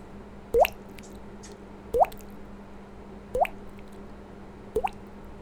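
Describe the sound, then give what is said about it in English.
A voice imitates water dripping with the mouth: four evenly spaced, rising plink-like pops, roughly one every second and a half, clear over a faint steady hum. “That's somebody making the dripping sound with their mouth.”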